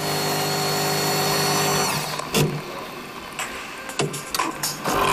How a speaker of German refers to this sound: Es ist die Kaffeemaschine hier bei FM4.